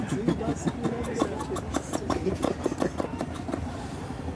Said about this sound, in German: da pupst ein Boot. Ähm, ich kann mich nicht konzentrieren.